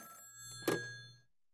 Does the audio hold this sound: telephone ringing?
yes